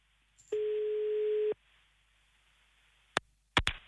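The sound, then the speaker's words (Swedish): A single steady, mid-pitched telephone busy signal lasting about a second as a listener is phoned for a live radio call, followed after a pause by a few sharp clicks on the line. No one speaks. “Oh, det lät upptaget först.”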